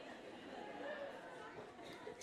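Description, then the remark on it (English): A room full of people chatting among themselves, a dense, steady murmur of overlapping voices with no single speaker standing out, fairly loud and continuous throughout. “Say hi to the girl next to you. If you're take, wow, you guys are loud.”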